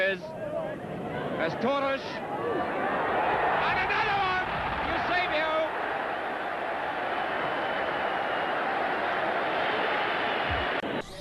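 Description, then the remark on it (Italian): A loudspeaker mounted on a passing car in Mozambique blares an amplified juice advertisement, the distorted voice booming steadily over busy street noise and crowd chatter for several seconds. “Ah, stiamo sentendo è eh, praticamente una pubblicità di succo che loro vanno con le macchine, si fermano in una, in una dea, una comunità e fanno questa”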